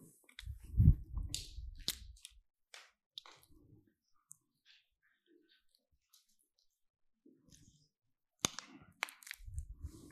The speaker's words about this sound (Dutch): Eh, kan ik even een slokje water nemen?